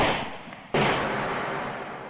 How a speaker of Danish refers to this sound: To skud.